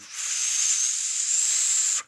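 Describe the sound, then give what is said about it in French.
A person imitates a very high, airy, ultrasound-like whistle, the kind once used in cinemas to find each other in the dark without disturbing others: one steady breath of about two seconds, mostly loud hiss with a thin, piercing tone running through it, then it cuts off abruptly. “Et là, on entend un sifflement, notre sifflement d'antan, le sifflement qu'on faisait dans les salles de cinéma pour se retrouver dans le noir.”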